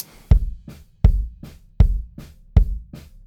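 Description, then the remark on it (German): Punchy bass drum hits, recorded with an AKG C414 large-diaphragm condenser microphone placed in front of the bass drum, land in a steady beat about every three quarters of a second, full-bodied, with softer drum strokes bouncing in between. No one speaks. “Ne, ist ein Großmembran-Mikro, ist eigentlich ein Allrounder, das heißt, man hat verschiedene Richtcharakteristiken und man kann auch super drüber einsingen und äh, auch Bläser damit aufnehmen, aber ich habe es jetzt hier vor der Bassdrum gehabt.”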